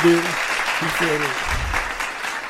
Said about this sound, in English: I give myself a round of applause.